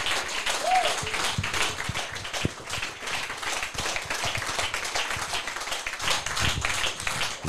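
A crowd applauds steadily, a dense, continuous wash of many hands clapping at an even loudness for several seconds, with faint murmurs and a brief whoop mixed in.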